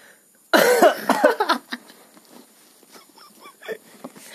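A loud coughing fit begins abruptly with a harsh burst, then trails off into several smaller, rougher coughs and throaty rasps.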